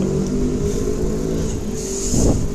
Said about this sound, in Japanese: バイク買いたいって言ってからめっちゃうるさいバイク通った